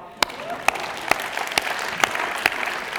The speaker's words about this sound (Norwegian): En stor applaus til barna.